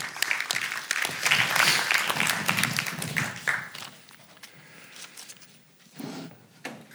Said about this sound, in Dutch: Hartelijk applaus.